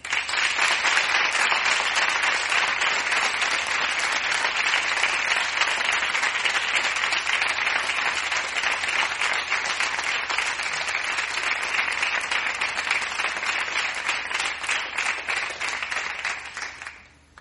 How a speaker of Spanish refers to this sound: Pido un fortísimo aplauso para él, por favor.